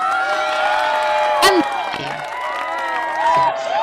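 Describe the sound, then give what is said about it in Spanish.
A lively crowd cheers and applauds in a steady, dense wash of clapping and excited voices, with a brief louder burst midway and whoops rising over the noise. “pero no es un aplauso con aforo, es un aplauso”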